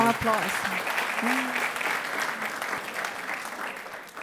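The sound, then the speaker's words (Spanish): A loud, sustained round of audience applause, dense crackling clapping that holds steady for several seconds, with a brief voice heard over it at the start. “Ese fuerte aplauso ahora sí.”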